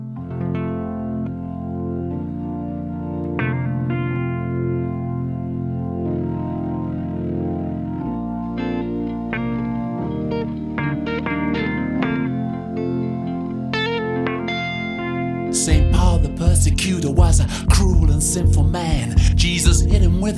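A rock band track plays, opening with sustained, effects-laden guitar chords before drums and distorted guitar crash in loudly near the end for a full-band sound.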